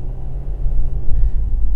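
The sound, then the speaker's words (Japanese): A steady, deep engine rumble fills the inside of a car, a continuous low drone with slight swells in loudness and no voices. “はい皆さん今日もお疲れ様でしたはい今日も車の中から、え配信をしていきたいなと思います”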